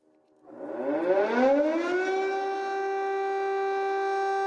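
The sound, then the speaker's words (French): An air raid siren sounds in Kyiv at 22:17 during a night bombardment, winding up from a low growl to a loud, steady wail and holding a sustained high tone, with no voices present. “les bombardements ce soir sont en train de s'intensifier. Cette image, ce son, ça date de 5 minutes à peine.”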